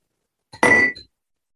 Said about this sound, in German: Super, darauf bringe ich direkt mal einen Toast aus zum Wohl. Lasst uns mal anstoßen drauf.